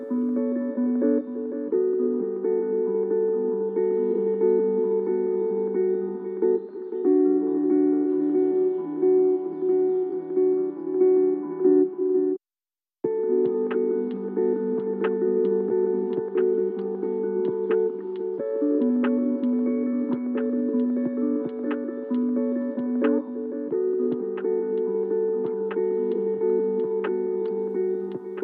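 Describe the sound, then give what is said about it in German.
A slow, mellow lo-fi hip-hop beat without vocals, from the YouTube live stream Lo-Fi Hip-Hop Radio Beats to Relax Study To, plays steadily: warm sustained chords with soft, crackly percussion ticks, briefly cutting out midway before resuming at an even volume. “Und zwar Low Fidelity Musik, Lo-Fi. Also langsame Beats, kein Gesang.”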